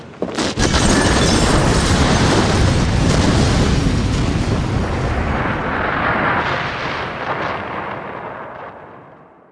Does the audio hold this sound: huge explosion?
yes